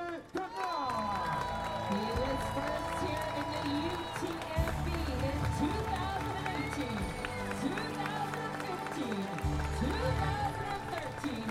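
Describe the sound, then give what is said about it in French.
A crowd claps and cheers steadily throughout, a continuous wash of applause for a race runner representing France, beneath an announcer's amplified voice talking over a loudspeaker at an outdoor event. “Représentant la France, un tonnerre d'applaudissements pour Xavier”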